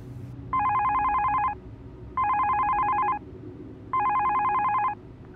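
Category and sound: signal or alarm, telephone dialing and ringing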